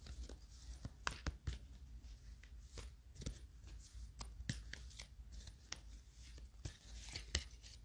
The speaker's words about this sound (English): So we had some cards fall out. I'm going to continue to shuffle and see if any more come out.